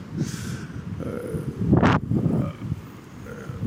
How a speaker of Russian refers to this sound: что-то видите, какой ветер тут идет.